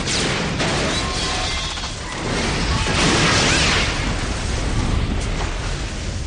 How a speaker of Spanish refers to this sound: El emisor de microondas se activa provocando una explosión que permanece contenida por los muros del aparcamiento.